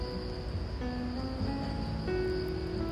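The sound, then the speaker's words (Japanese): A dense, steady insect chorus of cicadas drones continuously, with sustained high buzzing and a few tonal whines layered over a low outdoor rumble, moderately loud and unbroken throughout. “一旦泣き出すとその大合唱に大きさも小ささも去年のボリュームを覚えているわけではないのでああ今年もセミの大合唱の下を歩けると思って”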